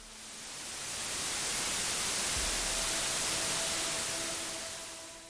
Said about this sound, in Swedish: När Sirenhead sover så ger den ifrån sig ett annat ljud, ett så kallat vitt brus.